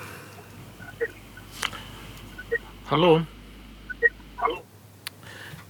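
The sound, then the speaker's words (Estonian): A single voice, the host's own, speaks a short greeting over a thin studio telephone line, returning as an echo of itself with a slight delay, surrounded by faint clicks and low line hiss. “siin kajas nüüd küll saatejuhi enda kõne vastu, aga proovige uuesti”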